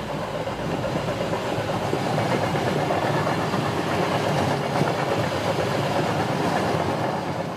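A train from Warsaw to Berlin rolls steadily along the rails with a continuous, fairly loud rumble and faint rhythmic clatter, with no voices.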